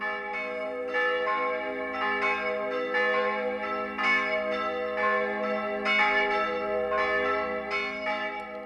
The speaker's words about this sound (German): über die Grenze kommen groß und dröhnend die Züricher Glocken.